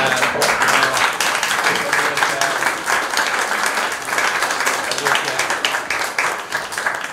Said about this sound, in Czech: Také vás zdravím, děkuji za krásný potlesk.